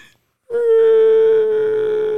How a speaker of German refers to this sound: Hör auf zu weinen, hör auf zu weinen.